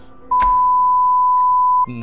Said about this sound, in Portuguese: Eu vou até bipar essa parte no cast.